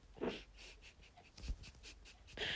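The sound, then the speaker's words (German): A puppy pants in quick, soft, breathy bursts, with a couple of faint whimpery squeaks mixed into the rhythm and no voices. “Einen Welpen. Nein, wie niedlich.”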